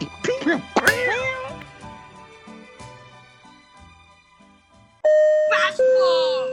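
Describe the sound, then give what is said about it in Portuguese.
A voice imitates a cat, letting out a few quick, rising-and-falling meows near the start, followed by quieter murmuring and then a loud, sustained two-tone electronic chime at the end. “É aquele cara que cospe preto, que faz barulho de, de, é, de alumínio. De gato.”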